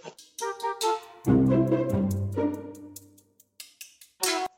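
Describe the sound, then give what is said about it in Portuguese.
A dog barks loudly in a rapid string of sharp barks, with a longer drawn-out bark in the middle; no one speaks. “tem um cachorro latindo pra cacete aqui agora.”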